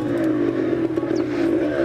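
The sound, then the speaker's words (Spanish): A motorcycle engine drones steadily as a man rides away on it, its low, throaty hum holding for a couple of seconds with a faint rattle on top. No one speaks. “Ramiro se fue en la moto.”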